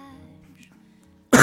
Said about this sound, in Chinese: 我靠，你这个咳嗽 好吧 越发的吓人了。